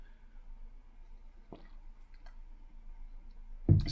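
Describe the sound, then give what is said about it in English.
Quiet sipping of water: a soft click and faint wet mouth noises over low background hum, then a sudden louder clunk near the end, like a glass being set down. No one speaks. “Have had to take a sip of water.”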